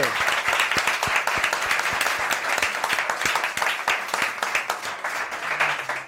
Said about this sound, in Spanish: Un aplauso para nuestro técnico. ¡Grande!